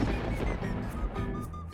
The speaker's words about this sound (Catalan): Ha esclatat la tronada.